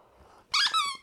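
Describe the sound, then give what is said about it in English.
Two quick, high-pitched rubbery squeaks from a monkey squeaky toy being chomped by a dog, fairly loud, following a quiet moment of low background noise. “It's quite annoying. Squeaky toy.”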